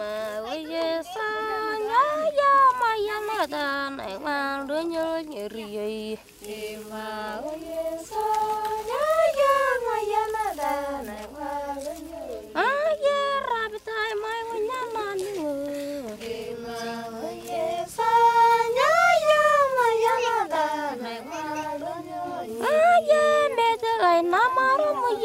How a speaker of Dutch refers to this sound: Een mooi fragment van vrouwen die zingen rondom het kampvuur.